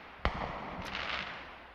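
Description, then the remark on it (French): A single sharp firecracker pop cracks out near the start, followed by a fainter crackling, hissing wash that lingers. Firecrackers in the streets on 14 July, the Fête de la République. No one speaks. “Les pétards et les drapeaux m'amusaient comme un enfant.”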